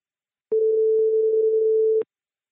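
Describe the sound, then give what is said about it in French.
A single steady telephone ringing tone of an outgoing call to the director of the Visa pour l'image festival, a clean mid-pitched hum lasting about a second and a half, with faint clicks at its start and end and silence around it. “On va appeler euh, pour ça Jean-François Leroy, directeur du, festival euh, et, fondateur du festival Visa pour l'image, pour avoir un petit peu euh, son point de vue.”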